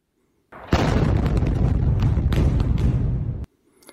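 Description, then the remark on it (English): A loud, close firework explosion roars for about three seconds, crackling and popping throughout, then cuts off abruptly. No voices are heard. “Simon, one of the longest standing volunteers, who I would later find out is also a GP, had just had an industrial sized New Year's Eve worthy firework set off under his chair.”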